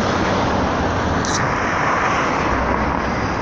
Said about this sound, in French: alors je suis désolé, il y a beaucoup de voitures autour. Ça fait du bruit de fond.